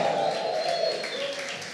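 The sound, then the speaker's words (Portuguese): A crowd claps and cheers together, giving a shout of joy and applause to Jesus, in a steady, dense wash of applause with raised voices shouting over it, sustained and fairly loud throughout the short moment. “E se você concorda, dê um grito de júbilo, dê um aplauso a Jesus.”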